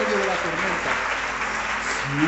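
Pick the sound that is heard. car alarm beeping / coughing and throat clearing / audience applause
audience applause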